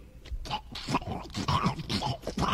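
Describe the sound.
A voice imitates how a wet sneaker squeaks "in Portuguese": a quick, uneven string of squelchy, nasal, duck-like squeaks and grunts, fairly loud, with nothing else around it.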